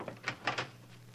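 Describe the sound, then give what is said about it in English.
A front door being opened, heard as a quick series of three or four short clicks and clunks from the latch, quiet over a steady low hum, with no voices. “Never mind, I'll go to the door.”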